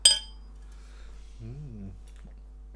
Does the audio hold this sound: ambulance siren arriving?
no